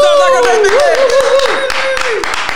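Loud, steady applause from a crowd, dense rapid clapping throughout, with a long wavering high-pitched tone held above it until it drops away near the end.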